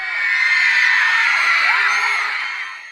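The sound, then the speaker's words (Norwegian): A large audience shrieks and squeals in delight, a dense wall of high-pitched screaming that swells quickly and holds steady and loud, before fading slightly at the end. “men publikum, de hviner i lykkerus åkke som.”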